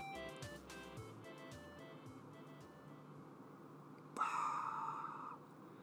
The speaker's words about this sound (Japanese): 少しノイズが聞こえますねあのー、エアコンですね